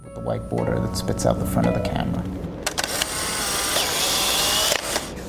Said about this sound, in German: Der wirkliche Verkaufsschlager kam 1972 raus, das war die SX70. Das ist die klassische Polaroid-Kamera, die die Bilder mit dem weißen Rand vorne ausspuckt.